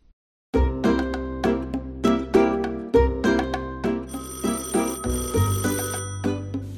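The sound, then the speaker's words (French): A telephone rings as a rhythmic run of bright, bell-like chiming tones over a low, sustained hum, the notes pulsing steadily and fairly loud for several seconds, with no voices. “On écoute son petit coup de fil.”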